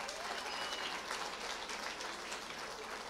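A room full of people claps steadily and densely for a few seconds, the applause even and continuous at moderate volume, with a few faint voices mixed into the clapping.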